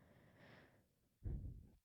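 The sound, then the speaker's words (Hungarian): Someone breathes heavily into a microphone: breathy puffs of air, a soft hissy exhale, then a louder, rumbling gust of breath right against it, with no speech. “ne szuszogj bele, ne szuszogj bele a mikrofonba, így minden zár, Nem direkt csinálom.”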